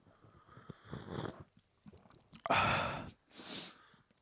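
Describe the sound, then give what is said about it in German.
Slurping of hot Chinese Pai Mu Tan white tea: three short, airy sips, the middle one the loudest and wettest, separated by brief quiet pauses with no talking. “Ich kann nur so ein bisschen schlürfen.”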